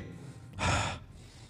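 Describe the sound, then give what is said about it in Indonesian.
A single deep, airy breath, drawn in through the nose and let out through the mouth as a breathing exercise, a short rushing burst of air lasting under half a second, with quiet surrounding it and no talking. “Tarik lewat hidung, buang lewat mulut.”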